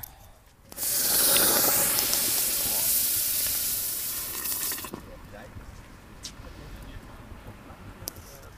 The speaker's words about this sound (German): So klingt es, wenn man einen, ich würde mal sagen, anderthalb, zwei Kilo Basaltstein aus dem Feuer in die Würze steckt, um auf welche Temperatur zu kommen? 72 Verzuckerung. Also von 64 auf 72 gehen wir gerade.